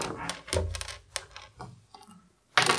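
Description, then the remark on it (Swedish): A twenty-sided die (T20) is rolled during a game, rattling and clattering across a hard surface in a run of sharp, irregular clicks and taps, fading briefly before a final louder burst of rattling at the end. No voices. “Eh, slå din tärning.”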